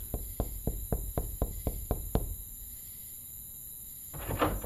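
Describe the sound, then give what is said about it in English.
A man knocks desperately on the familiar door of a house at night, a rapid, insistent run of about nine knocks, evenly spaced and fairly loud, followed by a pause and a faint rustle near the end. “He finally arrives at the familiar door, knocks on it desperately.”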